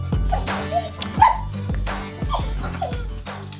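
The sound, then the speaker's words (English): A female dog barks and yips on command several times in quick succession, fairly loud, each bark short with a slightly whiny edge. No one speaks over it. “Can you go a little louder? Can you do louder? Speak. There you go. There you go. Good girl.”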